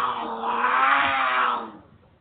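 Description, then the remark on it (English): A single loud, raspy cougar growl sound effect swells for about a second and a half and then fades away quickly. It stands alone with no talking. “Do you have cougars on your porch swing?”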